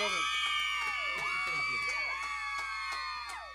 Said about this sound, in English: Yes, we got the girls are screaming. We have got all those fans out there. Look at them! Look at them.